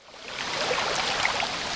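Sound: flowing river water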